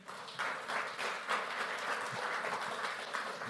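A crowd of people applauds steadily, a dense, continuous patter of many hands clapping that holds at a fairly even level for several seconds, with no voices standing out; the applause is given to the King (God) right after a Spanish-language prayer.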